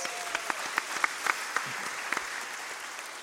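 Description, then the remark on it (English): A church audience claps together in a steady, dense patter of applause for the church's teenagers, with a few sharper individual claps popping out above the wash. There are no voices, and the clapping holds at an even, moderate level throughout. “So a round of applause for that teenager and all the teenagers in our church.”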